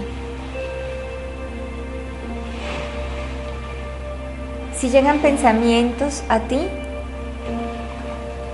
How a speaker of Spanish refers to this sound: permite que con esa agua que escuchas se vayan.